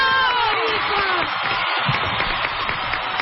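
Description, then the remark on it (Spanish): An audience breaks into sustained applause and cheering for Rivera, a dense, steady wash of clapping with a few whoops and whistles rising above it, loud throughout. “que un aplauso para Rivera”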